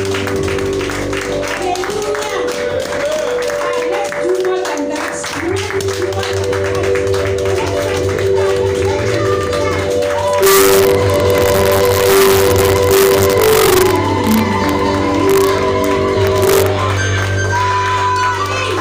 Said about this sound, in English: Can we please stand on our feet and give God a, a, a very big clap and hallelujah.